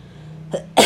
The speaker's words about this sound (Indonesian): batuk baji ya gue harus menjauh waduh social distancing